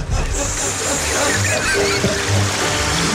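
Water flows steadily in a continuous, rushing wash with a few small splashes, like a stream, played as relaxing nature sounds, with no voices on top.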